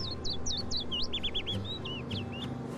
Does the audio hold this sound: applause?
no